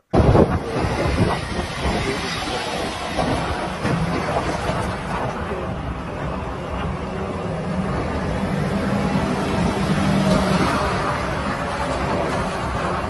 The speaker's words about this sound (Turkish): Şey işte Konya'nın işte hangi ilçesi? Çermik miydi? Çermik ilçesinden işte soğan kamyonları yola çıktı İstanbul'a doğru diye.